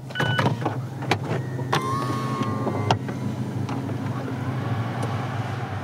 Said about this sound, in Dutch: Het dak kan open